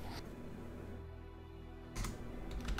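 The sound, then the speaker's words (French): Soft scratching of a pen or pencil writing on a sheet of paper, a few brief strokes separated by pauses, fairly quiet, with no one speaking. “je vais écrire sur une feuille euh, Vous êtes plus dans la même situation, c'est simplement pour notre sécurité.”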